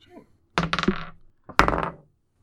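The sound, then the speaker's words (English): Two sharp clattering bursts, each starting with a hard knock and then a rattling tumble, as a die is rolled across a tabletop twice with a short pause between, for a stealth check in a game, landing on twelve. “Twelve on the die.”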